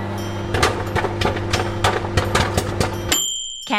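Popcorn popping inside a humming microwave, a dozen or so sharp pops bursting every fraction of a second over the steady drone, then a bright electronic beep as it finishes.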